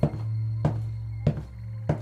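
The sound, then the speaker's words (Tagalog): Four heavy, dull footsteps thud at a slow, even pace outside a concrete house, each a low muffled impact over a steady low hum. No one speaks. “Yan na ngang nawala ang aking antok, lalo na nang makarinig ako ng mabibigat na yabag mula sa labas ng bahay.”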